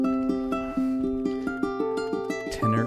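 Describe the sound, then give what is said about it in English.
A ukulele, model number 26 called the Celt, with a red Adirondack spruce top, plays a quick, steady run of bright plucked notes, clear, with a fuller strum at the end and no voices. “ukulele number 26, the Celt. So Adirondack spruce is the top, so you got a red spruce top.”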